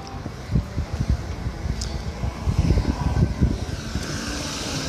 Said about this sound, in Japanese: はい、今、えー、京成電鉄がですねえー、私が私が立っている踏切の近くをこう走って通り抜けていきますはい成田空港行きはい